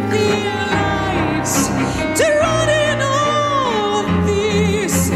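A woman sings a rock song over a full, loud band, her voice rising into long sustained notes above dense guitars and steady drums, continuous throughout.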